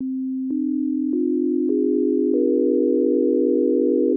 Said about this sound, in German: Deswegen fing er dann an, mehrere Sinustöne in verschiedenen Frequenzen miteinander zu kombinieren. Er kombinierte immer fünf Stück.